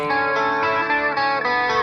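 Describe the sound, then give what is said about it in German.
A clean, undistorted electric guitar sound, emulated in software to imitate a Red Special guitar, rings out loud, sustaining a bright chord with subtle shifts between notes for about two seconds, with no voices. “Das ist quasi die nachgeahmte Red Special im Clean-Modus ohne Verzerrung.”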